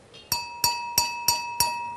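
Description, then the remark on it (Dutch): A drinking glass is tapped five times at an even pace, each tap ringing out with a clear sustained B-flat tone that lingers between strikes, moderately loud with no talking. “Eh, zoals ik bijvoorbeeld tegen dit glas tik.”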